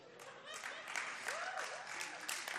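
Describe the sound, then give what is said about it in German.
A crowd claps steadily in a dense, continuous patter of hand claps, with some scattered voices and a faint whistle-like tone rising and falling underneath. “Sind es jetzt Frauen oder Männer, die klatschen?”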